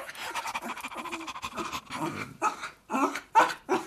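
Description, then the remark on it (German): A dog pants rapidly and wetly, with short breathy bursts and a few soft whimpering sounds, no talking, as it is given a sweet treat. “Nein, da, Hundi, lass es dir schmecken.”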